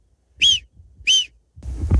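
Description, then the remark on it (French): Two sharp, high-pitched whistles from a person imitating a marmot's alarm call, each about a third of a second, evenly spaced, followed by a burst of low rustling or breath noise. “est-ce que tu as appris avec toutes ces années à imiter le sifflement de la marmotte Tu vois vraiment que je.”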